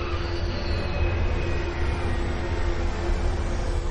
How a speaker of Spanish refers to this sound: un avión aterriza en un aeropuerto.